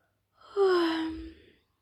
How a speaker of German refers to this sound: gähnt Bommel leise.